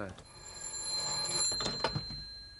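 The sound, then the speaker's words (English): A telephone bell rings steadily throughout for an incoming call, its high metallic tone sustained, with some muffled background movement and faint voice-like sounds underneath. “Well, obviously, it's somebody ringing up, sir.”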